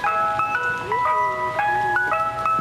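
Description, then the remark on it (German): A tinkling, music-box style jingle from a beer wagon plays a repeating melody of bright chiming notes, steady and fairly loud, as the wagon announces itself. “wir hören da im Hintergrund den Bierwagen.”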